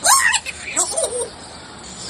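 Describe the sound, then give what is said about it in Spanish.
A talkative pet parrot chatters in a squeaky, speech-like voice for about a second, its pitch gliding up and down, then falls quiet against faint room noise. “qué me dices si tuvieras un loro como berricho que no calla”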